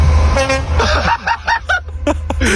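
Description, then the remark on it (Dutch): An English trainspotter imitates a train horn: a loud toot blares, then breaks into a rapid string of short honking bursts that waver up and down in pitch over a low background rumble. “Toet het hij nog een keer?”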